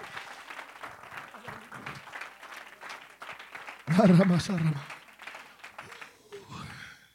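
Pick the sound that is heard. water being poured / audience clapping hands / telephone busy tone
audience clapping hands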